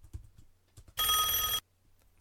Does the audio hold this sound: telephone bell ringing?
yes